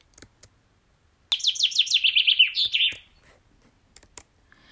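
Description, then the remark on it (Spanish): A bird in a forest sings a quick, bright run of descending chirps lasting under two seconds, clear, with near silence and a few faint ticks around it. “La pequeña se entretuvo en el bosque, escuchando los pajaritos.”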